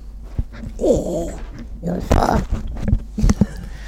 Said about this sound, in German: Dieses Geräusch ist übrigens Hundenase gegen Mikrofon.